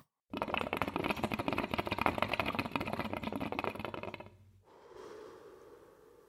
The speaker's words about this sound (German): Das so den Geruch, das Blubbern. Ich liebe das Blubbern, Mann. Ich liebe das Blubbern von Shisha. Das entspannt mich.